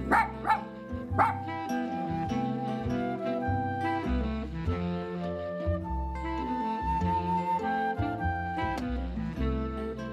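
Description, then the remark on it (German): A small Spitz dog gives a few sharp barks near the start, then keeps yapping over a steady, dense tonal background that carries on throughout. “Der Spitz scheint wieder in Mode zu kommen.”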